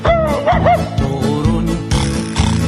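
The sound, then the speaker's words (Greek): A few quick, high yapping barks like a small dog's, apparently imitated by a voice, ring out over a bouncy, upbeat musical accompaniment that carries on loudly throughout. “Όταν θα πάω κυρά μου στο παζάρι θα σου αγοράσω ένα σκυλάκι Το σκυλάκι”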